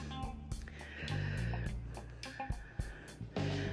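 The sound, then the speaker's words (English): Cats squabbling and fighting in the background on a Wednesday evening, with drawn-out tonal yowls and wails broken by sharp scuffling bursts and hisses, continuing throughout with no talking. “So, yeah, you'll get the fun of hearing my cat squabbling and making a noise.”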